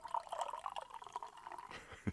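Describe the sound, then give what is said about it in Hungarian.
Champagne is poured into a glass in front of a microphone, a steady fizzy gurgle for about two seconds, ending with a short, sharp knock. “öntöm a pesgőt a pohárba, itt a mikrofon előtt.”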